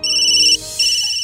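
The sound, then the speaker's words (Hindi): A phone ringtone for an incoming call trills loudly in steady electronic bursts, with a brief gap between two rings and no voices over it. “जब डायना की flight land होने वाली ही थी पीयूष को एक कॉल आया”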